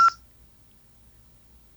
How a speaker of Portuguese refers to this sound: Eu estou ouvindo um pi, é de vocês. É sinal das 10 e meia, não te preocupa, pode. Sinal da rádio.